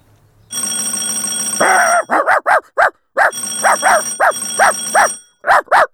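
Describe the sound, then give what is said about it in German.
A dog named Happy barks loudly about a dozen times in quick, uneven bursts, over a steady high electronic ringing, like a phone or doorbell, that starts and stops. “Und nimm den scheiß Köter weg!”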